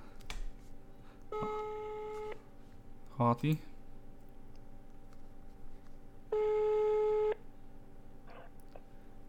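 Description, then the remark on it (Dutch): A phone ringing tone plays twice, two steady one-second tones about four seconds apart, over a low background hum, as a phone call is placed during a recording to check whether the call can be heard. A person speaks briefly between the rings, accompanied by a few clicks. “ik denk dat het misschien leuk is als ik hem even ga bellen”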